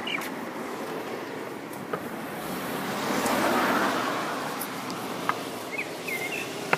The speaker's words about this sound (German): Entschuldigung für diese Pause. So, jetzt sind die Autos wieder weg.